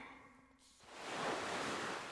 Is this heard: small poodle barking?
no